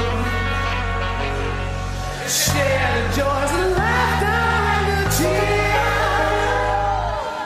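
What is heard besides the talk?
christmas rock song playing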